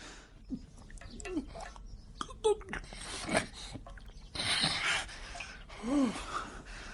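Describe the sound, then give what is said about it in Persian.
The scholar Abu Hamid Muhammad al-Ghazali, in a dramatization, drinks a cup of water in a series of wet gulps broken by sharp, breathy gasps and strained exhalations, with irregular pauses between swallows and no speech. “بگیر محمد این هم آب بیشتر بنوشید استاد”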